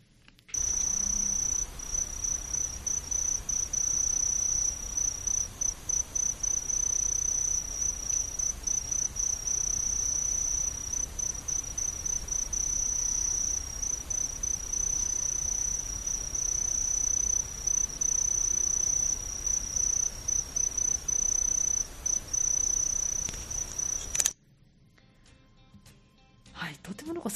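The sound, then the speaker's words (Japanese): A kinhibari cricket trills continuously in high, rapid pulsing chirps, steady and clear for about twenty-four seconds against a quiet outdoor background, then stops abruptly. “涼やかな感じでそうですねこれがあの金ひばりっていうやつの声でこれが金ひばりなんですか、はい、すごく綺麗なあの音、ね、そうですねピピピピピっていう感じで”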